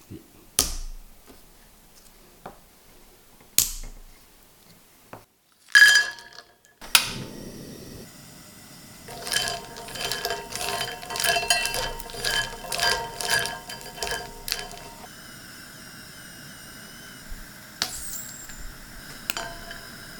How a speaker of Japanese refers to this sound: 目覚めのいいね今朝は焼き銀杏のいい音それではお聴きください。